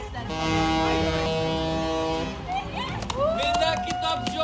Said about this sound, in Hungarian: Budapesten ezúttal nem csak az autósok dudáltak, a Dunán úszó hajók közül is többen kürtöltek, a tiltakozókat üdvözölve.